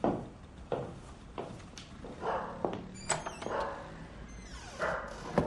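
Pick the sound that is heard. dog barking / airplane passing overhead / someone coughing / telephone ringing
dog barking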